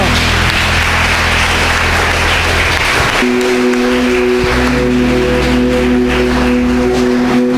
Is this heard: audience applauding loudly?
yes